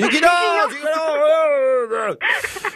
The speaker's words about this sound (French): Ah, j'entends quelqu'un qui crie là.